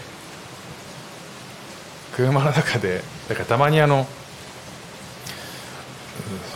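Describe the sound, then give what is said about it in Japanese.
Heavy thunderstorm rain pours steadily outside in Singapore in a continuous, even hiss that fills the whole clip, while a person speaks briefly over it partway through. “雷雨の音を聞きながら雑談”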